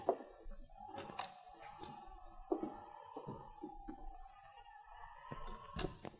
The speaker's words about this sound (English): Open that door as quietly as you can.